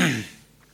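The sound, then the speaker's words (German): One short, breathy sneeze that bursts out loud and then fades quickly into quiet, with no talking around it. “Oh, jetzt Sekunde mal. Gesundheit.”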